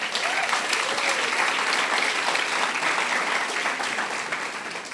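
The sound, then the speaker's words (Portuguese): An audience applauds the Lord steadily for about five seconds, a dense, continuous wash of clapping hands that holds at full strength and eases slightly at the very end, with no speech over it. “Glória a Deus e um aplauso ao Senhor.”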